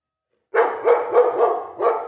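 A dog named Henry barks in a quick series of about five sharp, mid-pitched barks, loud and fairly evenly spaced, with no talking over them.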